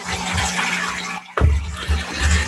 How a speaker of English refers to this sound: neither does your washer apparently. it's not the washer. Somebody's in the shower. Somebody's definitely in the oh, shower.